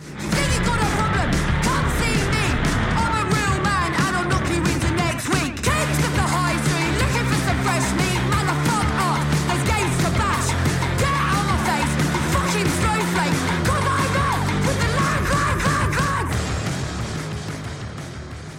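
A loud, dense punk-style rock song with distorted guitars and driving drums, a voice shouting the vocals over the wall of sound, playing continuously before easing slightly at the end.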